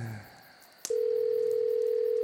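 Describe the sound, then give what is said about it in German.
A click, then a steady, unbroken telephone tone sounds clearly and alone, like a mobile phone call ringing through while waiting for someone to answer. “Na komm, geh schon ran,”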